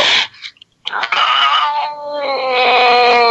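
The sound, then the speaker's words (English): A male cat lets out a loud, drawn-out yowl, rising and wavering in an unhappy, complaining tone after a brief silence, sustained to the end. “He's not happy about that.”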